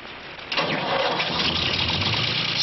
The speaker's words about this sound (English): Everywhere I go, people ask me, Arnie, is that old tractor you drove in the Pennzoil commercial still running?